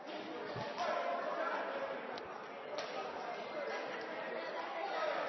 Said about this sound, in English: Somebody stand up right now and slap five people, high five, and tell them, don't worry about the giants.